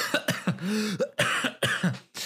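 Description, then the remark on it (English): A run of several quick, harsh coughs, bunched together with a throaty, voiced catch between bursts, like someone briefly choking on a laugh. “Sorry, I was just coughing at, at the thought of you thinking that we can't talk about trees for an entire hour.”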